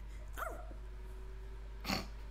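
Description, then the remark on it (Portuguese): A person briefly imitates a cat's meow with a short, wavering vocal cry, followed a moment later by a soft breathy burst against a quiet background hum. “Sim, vais ter que fazer miau, porque miau é coisa de leão.”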